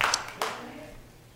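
audience applauding

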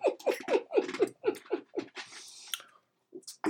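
dog panting

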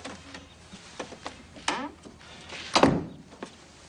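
door being shut

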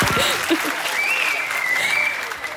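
audience applause

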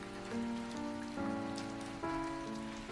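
rain falling

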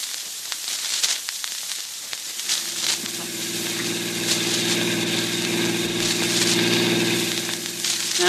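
car engine running

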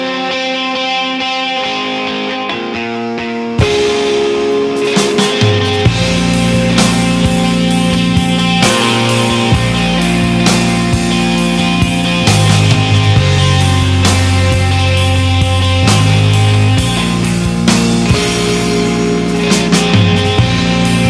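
rock song played

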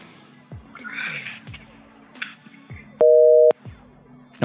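telephone busy tone

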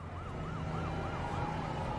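ambulance siren

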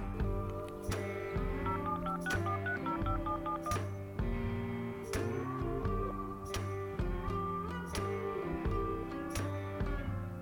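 telephone keypad dialing tones

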